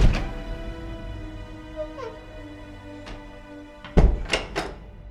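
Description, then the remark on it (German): An office door is pushed open: a soft knock of the latch early on, then a cluster of heavy wooden thunks as it swings and bumps near the end, with no voices. “Er atmet zweimal tief durch und stößt dann die Tür zu Merz Büro auf.”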